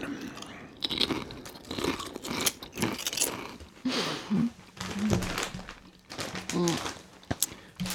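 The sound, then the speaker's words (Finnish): Loud, irregular crunching of vinegar-flavored potato chips being chewed, with repeated sharp crisp bursts and a few soft vocal murmurs between bites. “Kyllä nyt taas, nyt taas etikkasipsi yllättää positiivisesti verrattuna viime jakson Sour Cream ja Onion Dippiin, joka – paperilla kuulostaa hyvältä, mutta on käytännössä hirveää paskaa, niin tämä etikkasipsihän nyt on täysin vastakohta”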